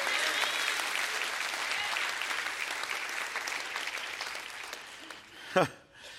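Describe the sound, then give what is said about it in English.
A crowd claps steadily, a dense wash of many overlapping hand claps that holds for several seconds before thinning out, with a brief rising voice or cheer near the end. “Would you clap your hands and say, That's what God's going to give us in our life?”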